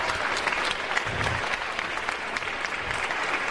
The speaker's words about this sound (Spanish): La gente aplaudiendo al final.